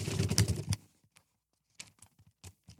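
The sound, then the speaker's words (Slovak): Crisp rustling of thin Bible pages: a loud flurry of papery crackles at first, then a pause and a few scattered, softer rustles and flicks, with no voices. “Ktorá Biblia šušti krajšie? No, novšia či staršia?”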